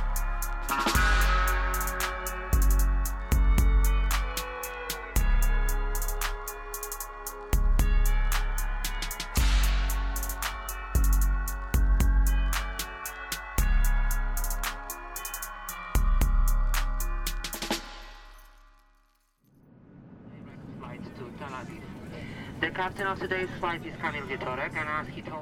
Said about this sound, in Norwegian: Som du hører, så er ikke denne episoden av Røverradioen spilt inn i fengsel. Akkurat dette er naturligvis spilt inn på et fly, og det flyet er på vei til Israel.